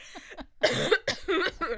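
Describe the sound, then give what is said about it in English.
A person coughs several times in quick succession, fairly loud, with harsh bursts separated by brief pauses; a bit of breathy vocal sound precedes the coughs. “yeah, especially when you start coughing.”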